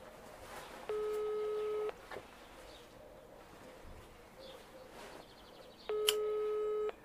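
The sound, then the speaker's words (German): A phone line ringback while calling a man who does not pick up: two steady, buzzing ring tones about a second long, separated by roughly four seconds of faint background hiss, clear and moderately loud with no talking. “Ich würde ihn mal anrufen”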